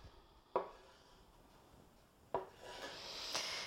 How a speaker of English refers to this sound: And what you're going to do is cut the piece that you have in six chunks, six strips actually, against the grain. So don't cut along with the lines, cut crosswise to them. Cut your whole piece of meat in half and then cut each half into three pieces.